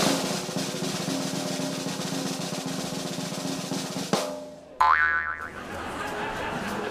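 A bow, drawn and aimed at a map, shoots an arrow with a sharp springy twang that wobbles upward in pitch, cutting through a steady rushing background noise that briefly drops out just before the release.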